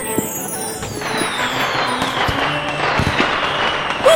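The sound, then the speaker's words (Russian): Dense, continuous crackling and sizzling of fireworks outdoors in the street, with sparks flying and things spinning, a thin whistling tone that slowly falls in pitch as something spins or shoots upward, plus a few sharp pops. “смотрите, все горит, крутится, взлетает Искры летят, трещит все, ну вообще”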